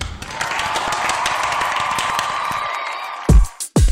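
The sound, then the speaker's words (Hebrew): A crowd applauds steadily, a dense wash of many hands clapping at once, followed by a couple of loud thumps as it cuts off near the end. “הופה, יש לי את זה, קבלו אותי במחיאות כפיים.”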